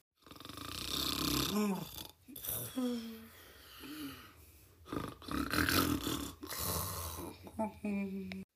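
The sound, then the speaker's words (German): A voice imitates the loud, exaggerated snoring of the giantess Grauselides: a series of rasping, drawn-out snorts and grunting breaths, repeated several times with short pauses between them. “Das Schnarchen von Grauselides war bis zum Fuß des Berges zu hören.”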